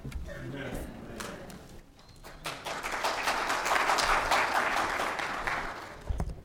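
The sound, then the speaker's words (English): An audience breaks into applause for a speaker who has just been introduced, before he says anything: many hands clapping in a dense, steady patter that swells to a full roar and then eases off, with a voice speaking briefly before it starts. “I uh, usually don't get clapped for before you say anything.”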